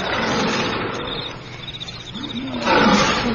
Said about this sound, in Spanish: De pronto oyeron un rugido.